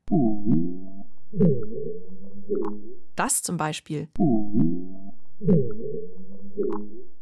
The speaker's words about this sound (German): Wer dieses Nebelhorngeräusch macht, ist selbst Experten noch ein Rätsel.